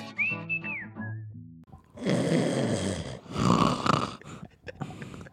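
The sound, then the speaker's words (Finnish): A person mimics snoring: a brief high whistled tone, then several seconds of loud, rough, rattling snore noises in uneven bursts, with no talking. “Ajat tolleen nukkua. Tolleeks nukuttaa? No kyllä Daamit kertoo, että mä kuulemme kuorsaa.”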